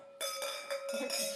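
Several glasses clink together in quick succession in a toast, each strike leaving a bright, sustained ringing tone that overlaps the next, fairly loud.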